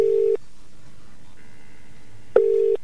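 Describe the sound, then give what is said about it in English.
A telephone line gives a steady electronic tone that cuts off, leaves a pause, then returns: the repeating on-off beeps of a busy or unobtainable signal, fairly loud and with no one talking. “Well, he's certainly not on this phone number, is he?”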